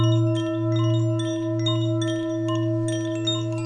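A singing bowl rings with a steady, sustained tone, its deep hum wavering in a slow pulsing beat while brighter overtones shimmer above; no voices, just the continuous resonant ring.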